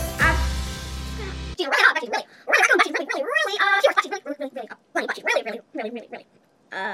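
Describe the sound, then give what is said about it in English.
A dog barks and whimpers in a run of short, high yips and whiny cries that come in uneven bursts, fairly loud, following a brief dense burst of sound at the start. “partially good dog.”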